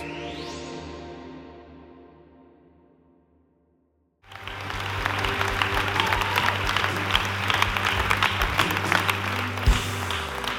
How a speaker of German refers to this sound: Danke von ganzem Herzen. Was für ein liebevoller, entzückender Willkommensapplaus. Schön, dass ihr da seid.